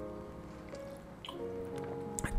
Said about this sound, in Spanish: Voy a tomar un poquito de agua.